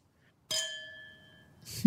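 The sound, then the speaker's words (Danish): Two glasses of wine clink once in a toast, leaving a bright ringing tone that fades over about a second before a voice comes in at the end. “Skål. Skål.”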